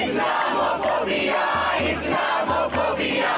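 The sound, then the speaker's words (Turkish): A large crowd of protesters in India chants against the citizenship law in unison, voices rising and falling in a steady repeated rhythm, loud and dense throughout with no single voice standing out. “Haftalardır Hindistan'da vatandaşlık yasası protestoları düzenleniyor.”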